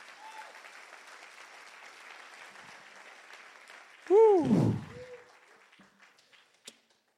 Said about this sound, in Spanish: Ahora dar un aplauso fuerte a Jesús.